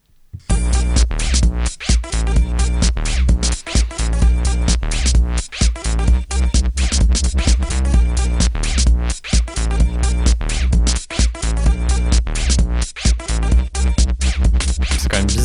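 A loud electronic dance track with a heavy, buzzing bass line and steady, punchy beat, playing continuously with brief rhythmic dropouts and no voices.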